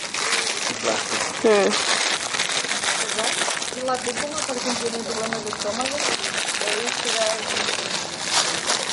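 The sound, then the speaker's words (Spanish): Steady crinkling and rustling of plastic wrapping as plastic cups are unwrapped, a busy, crackly texture running throughout, with people talking and murmuring over it. “Si alguien quiere ir abriéndome estos vasos, lo siento, intenté buscar vasos de reciclados de, eh, de papel, pero no he encontrado.”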